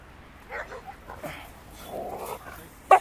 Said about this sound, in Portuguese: tá passando um cachorro ali,